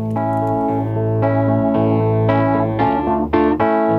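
A rock song's instrumental opening plays on the radio station CHUO 89.1 FM, loud and full, with distorted, effects-heavy guitar chords struck roughly every half second over a steady low bass, and no singing yet.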